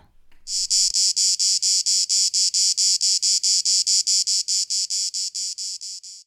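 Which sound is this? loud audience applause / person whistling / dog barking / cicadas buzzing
cicadas buzzing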